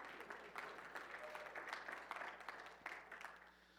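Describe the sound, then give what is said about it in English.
An audience claps steadily for a few seconds, a dense patter of many hands with no clear rhythm, holding a fairly even level before thinning slightly at the end. “Now, if you're going to clap, clap.”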